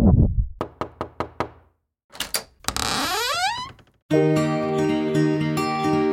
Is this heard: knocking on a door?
yes